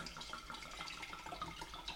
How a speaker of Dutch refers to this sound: Dus ging schenkt nu eh, drie glazen rosé in.